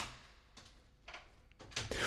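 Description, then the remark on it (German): A door opens or closes with several soft, airy whooshes, growing louder toward the end as a final sliding sweep builds. The sound is fairly quiet and no one speaks. “Unsere Tür funktioniert wieder.”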